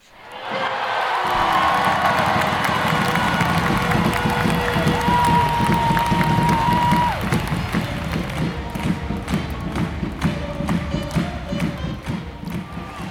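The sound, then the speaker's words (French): A loud ice hockey crowd in Angers erupts into sustained chanting and cheering after a goal is scored, with scattered claps and thumps throughout and a brief horn-like tone sounding midway through the roar. “La preuve, quand on entend les chants d'encouragement et le public euh, qui crie en concert, quand un but est marqué.”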